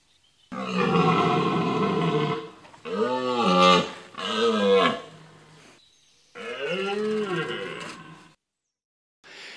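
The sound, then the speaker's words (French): A red deer stag bellows loudly, a long, deep roar followed by two shorter rising-and-falling calls and then a final drawn-out bellow, with brief pauses between them. “Ça devient effectivement, la voix devient beaucoup plus profonde, donc beaucoup plus impressionnante.”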